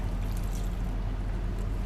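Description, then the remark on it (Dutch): A steady, continuous rush of water being poured into a pot to cook a packet meal kit with seasoning and sauce mix, fairly loud, with a low rumbling undertone and no talking. “Om uit een pakje te koken. Dit is echt zoveel wat ik normaal echt nooit doe. Water.”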